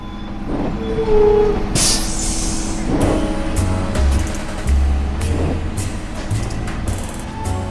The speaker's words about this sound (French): Le bus 53 a franchi le terminus Pont de Levallois. Maintenant, on roule à vide.